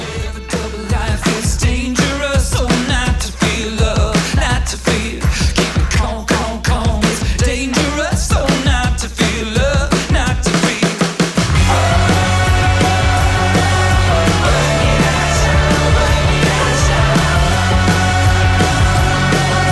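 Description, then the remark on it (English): The opening track of an indie rock album plays loud, with punchy, steady drum hits driving the first half before the band swells into a fuller, sustained wall of sound. “Yeah, this album has a little bit more of a production value to it than some of their previous albums.”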